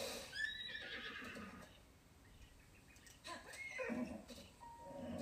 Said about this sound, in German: Boah, mein Pferd, Digga. Spinnt bisschen.